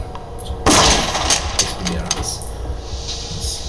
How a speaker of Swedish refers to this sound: Och det här, det här, det här intetsägande ansiktet liksom exploderar när han trycker av kulan mot sin tinning på vägen ner. Det här har jag gjort varje dag i 20 år, säger han. Så smäller han av.